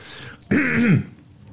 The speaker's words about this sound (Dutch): Moet je water? ik, ik, moet nog steeds hoesten van... Uh, niet van roken, niet roken.